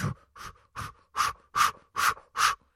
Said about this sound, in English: If you're maybe wanting to pump yourself up, you could try doing the boxer, doing the little pose, but it's the breathing and kind of those short bursts of breathing. That can be very energizing.